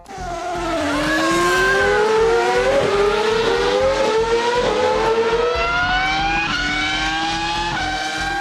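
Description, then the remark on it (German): A loud, high-pitched Formula 1 race car engine screams on a race track, its pitch climbing steadily and dropping briefly at several quick gear shifts, with no voices. “Dort gehen wir auf die Rennstrecke.”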